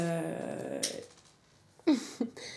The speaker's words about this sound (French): c'est le petit chat, le petit qui joue. le petit chat qui joue avec. c'est zéro déchet, hein. je suis impressionnée, il n'y a pas de plastique dans son boule d'argile. c'est une boule d'argile de ma plante.